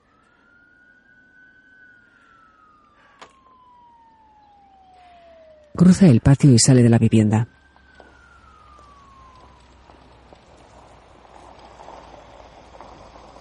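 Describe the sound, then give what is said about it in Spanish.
A police siren wails in long, slow falling sweeps as two police patrol cars arrive and park beside an SUV, interrupted briefly by a person speaking loud before the siren resumes with faint traffic rumble. “Dos coches patrulla aparcan junto al todoterreno.”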